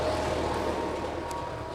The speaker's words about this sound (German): Ja, dann ähm, ja, müssen wir mal ganz kurz vielleicht nochmal pausieren, weil der Trecker sehr laut ist.